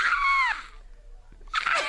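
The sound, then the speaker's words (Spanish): A person imitates a dolphin call with two bursts of high, squeaky whistling and chattering, the first with sweeping pitch glides, separated by a short pause. “Parece que es un delfín de Greenpeace.”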